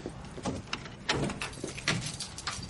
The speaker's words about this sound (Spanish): El hombre abre la puerta de un archivo. Les indica que pasen.